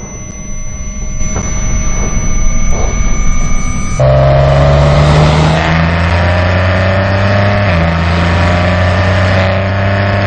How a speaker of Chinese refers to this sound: 四千转以后到六千转红区这段区域呢？会是 Ghibli 最好听的一个声浪区域，它会更加像回玛莎拉蒂那种超跑的排气管声浪了。